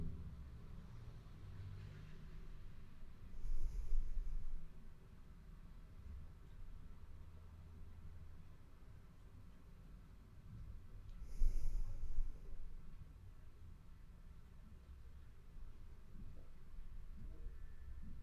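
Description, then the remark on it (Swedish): Slow, deep breaths drawn in and let out during a breathing exercise, two long airy swells about eight seconds apart, soft over a low steady rumble. “Och nu provar vi att andas både in och ut något långsammare än vad vi nyss gjorde.”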